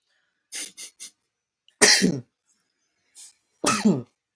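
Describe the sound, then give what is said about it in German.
A few short, sharp breaths are followed by two loud, explosive sneezes about two seconds apart, each a harsh burst of noise. No one speaks. “Gesundheit.”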